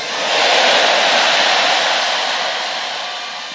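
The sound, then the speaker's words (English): A large audience shouts amen together, a loud sustained roar of many voices that swells quickly, holds for a few seconds, then slowly fades. “Let me hear your loudest amen.”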